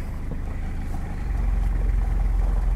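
old car engine running

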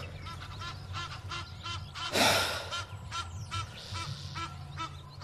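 geese honking in flight

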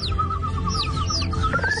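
canary singing

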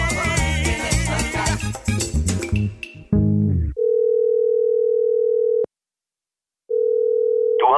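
telephone line tone

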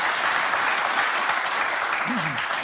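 hands clapping

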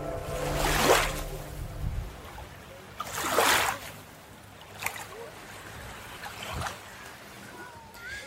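waves on a beach

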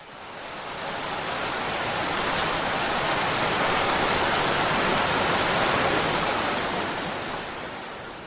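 rain sound effect

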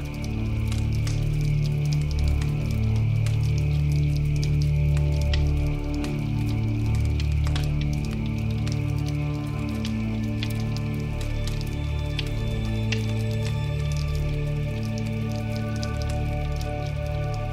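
rain falling

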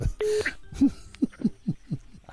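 telephone dialing tones

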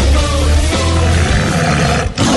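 tiger roar sound effect

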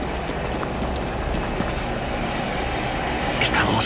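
helicopter flying low overhead

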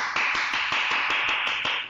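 applause sound effect

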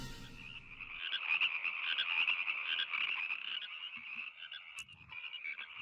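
frog croaking

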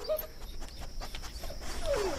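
dogs panting and whimpering

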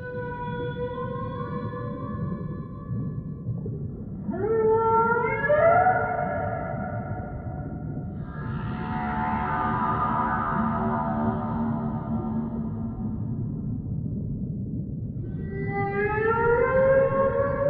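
whale song

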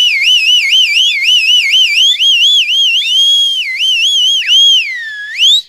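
shrill whistle

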